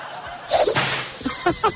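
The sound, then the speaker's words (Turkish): A single sharp whip crack rings out suddenly and loudly, leaving a hissing noisy tail, while people chatter and laugh over it. “bir tane daha bassana bunu işte bu ya.”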